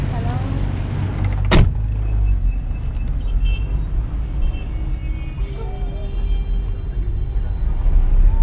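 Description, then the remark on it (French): Inside a taxi driving through congested traffic in Tehran, with a steady low engine and road rumble throughout, one sharp door thud near the start, and a brief motorized whir like a power window later on. “on va chercher un taxi.”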